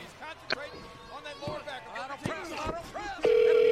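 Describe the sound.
Amid background voices and a few sharp thumps, a steady, loud telephone tone suddenly starts near the end and holds unbroken, like a call line ringing out unanswered.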